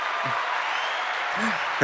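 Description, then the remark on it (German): Steady applause from a crowd, a dense wash of many hands clapping at even loudness for about two seconds, with a faint murmur of voices underneath. “Ist das was, was ein Applaus wert wäre?”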